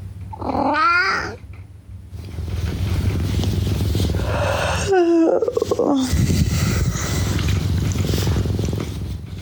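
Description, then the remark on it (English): A small cat that is being cat-sat purs in a steady, low, continuous rumble in the morning, broken by two brief, higher meow-like cries early and midway through. No one speaks. “But this time, I woke up to the beautiful sound of a purring little kitty.”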